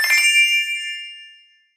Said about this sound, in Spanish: estaba tumbada en la cama escuchando música cuando sonó el timbre del teléfono.